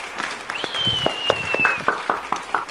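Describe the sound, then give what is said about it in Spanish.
Subdued applause from an audience welcoming a guest pastor on a special program: scattered, uneven claps that never build into a full ovation, with a thin high whistle sustained through the middle of the clapping. “Ese aplauso estuvo muy apagado, hermano.”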